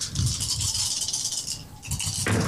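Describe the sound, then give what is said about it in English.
A steady, busy clatter of dice being shaken and rolled in a tabletop game, five dice in total, rattling continuously for a couple of seconds with a brief dip before a final burst of clicks, no voices. “you have five dice total.”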